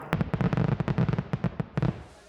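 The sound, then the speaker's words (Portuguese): A rapid string of fireworks crackling and popping as a festive balloon is sent up, with dozens of sharp bangs in quick irregular bursts, dense at first and then thinning out briefly before a final flurry. “Na hora de subir, festa e foguetório.”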